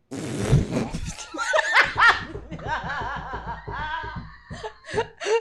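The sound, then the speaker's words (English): A voice imitates a deflating balloon with a sputtering, buzzy raspberry noise, followed by bursts of laughter and giggling from a couple of people. “like a balloon that's deflated. I had to make the sound.”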